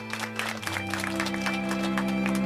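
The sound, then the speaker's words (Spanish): An audience applauds on cue, a dense patter of many hands clapping, as sad music is brought up, a slow, mournful tone swelling in underneath after a moment and holding to the end. “yo soy varias minorías, un aplauso, sube la música triste, que yo soy varias minorías.”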